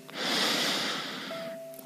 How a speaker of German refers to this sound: Also lass uns einatmen, ganz bewusst.